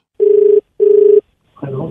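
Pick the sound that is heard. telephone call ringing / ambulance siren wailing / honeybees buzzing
telephone call ringing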